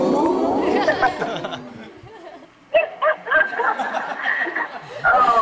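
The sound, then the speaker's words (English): A group of people imitate dogs barking, voicing loud overlapping yaps and woofs in short bursts, with some laughter and chatter mixed in and a brief lull midway. “now everybody become dogs.”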